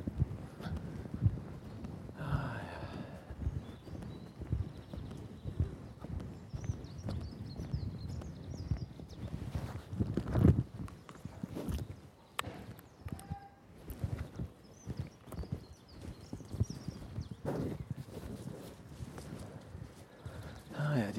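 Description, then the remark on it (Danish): A horse's hooves clip-clop steadily on a hard surface, a continuous uneven rhythm of moderate loudness, with some faint background voices and stable noises mixed in. “Okay, der er en hest, der gør et eller andet, den ikke må derinde.”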